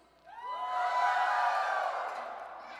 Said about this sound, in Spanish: No, ese fue puro griterío.